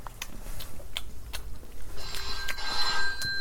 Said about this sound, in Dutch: Oh, de telefoon gaat.